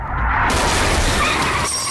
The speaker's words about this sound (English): The SUV collides with Walt's car.